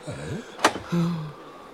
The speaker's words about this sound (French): On leur ouvre la porte.